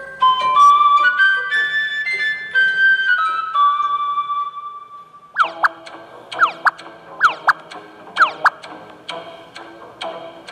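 A flute plays a short, lilting tune of held and stepping notes for about five seconds, followed by a run of quick, bouncy chirping blips in a steady rhythm. No one speaks.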